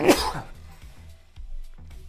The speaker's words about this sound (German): Gesundheit.